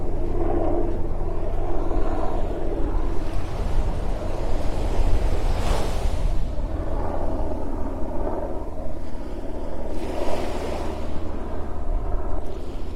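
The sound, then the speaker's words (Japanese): Gentle ocean waves wash onto a beach at Hayama, Japan, at dusk on a calm, warm, fine day with little wind, over a steady low rumble, with a couple of fuller swells breaking and hissing out. No voices. “夕暮れどきの一番キレイに海が輝く時間帯に、波音をお届け。”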